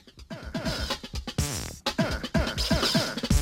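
Busy electronic music plays loudly, with punchy rhythmic hits and swooping, scratch-like pitched sweeps repeating over a dense, bright backdrop.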